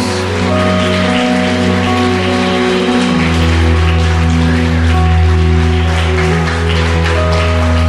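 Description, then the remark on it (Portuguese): An audience applauds God in a dense, steady wash of clapping that lasts the whole stretch, with sustained keyboard chords humming underneath and no talking. “Na salva de palmas a Deus.”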